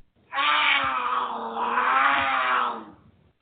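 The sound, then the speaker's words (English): A cougar lets out one loud, drawn-out snarl, harsh and raspy, lasting about two and a half seconds, with nothing else around it. “Do you have cougars on your porch swing?”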